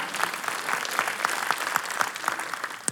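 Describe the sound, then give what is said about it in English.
An audience claps their hands together in steady, fairly fast applause, a dense wash of many hands with some sharper claps standing out, filling the room without any talking. “So give the Lord a hand clap for that.”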